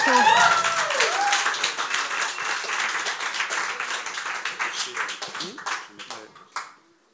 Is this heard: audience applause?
yes